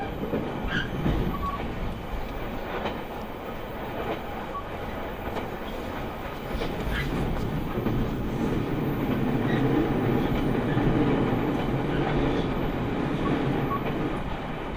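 A JR Kyushu limited express, Sonic No. 6 on the Nippō Main Line from Yanagigaura to Kokura, runs steadily along the rails. Its continuous low rumble and rolling hum fill the whole recording, with faint rhythmic clicks and a slight swell in loudness midway. No one speaks.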